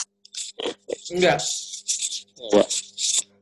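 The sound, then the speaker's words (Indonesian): Mattress springs scrape and rattle in short, gritty, metallic bursts as a man's foot shifts on a mattress, fairly loud, overlapping a man's brief spoken replies. “Ada suara gesek-gesek-gesek besi gitu.”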